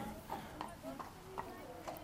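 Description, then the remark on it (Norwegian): The hooves of Max, a steady horse new in the stable and weighing about 500 kg, shuffle on the stable floor while he is held, a handful of soft, irregular thuds and scrapes, with faint voices murmuring underneath. “Max er visstnok en stødig hest.”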